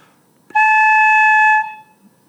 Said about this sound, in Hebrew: וזה משהו שהוא מאוד מיוחד אה, וייחודי לחליל, בגלל זה אנחנו אוחזים בחליל על הצד, כי אנחנו נושפים על פניו. אה, אז אני אראה לכם, או אשמיע לכם, איך הצליל הבסיסי של החליל נשמע רק מנשיפה על הראש.